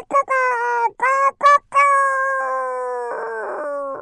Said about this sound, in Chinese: 听见鸡叫的声音，它的口水流了出来。于是，狐狸顺着声音四处找公鸡，找啊找啊，终于在不远处的树枝上看到了正在打鸣的公鸡。